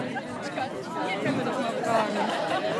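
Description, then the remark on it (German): Dense, steady crowd chatter fills the air, many overlapping voices blending into a continuous murmur of a busy outdoor summer festival on the grounds of a medical center, with drink and sausage stalls; the grounds keep filling with more people, and no single speaker stands out. “Und es füllt sich immer mehr hier auf dem Gelände des Medical Centers.”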